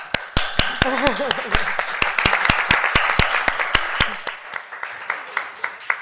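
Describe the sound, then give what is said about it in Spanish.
An audience bursts into applause for a woman from the project who is present. A dense wash of many hands claps steadily for several seconds, with a few louder individual claps standing out and voices briefly calling out underneath early on. “Eh, luego le damos un aplauso.”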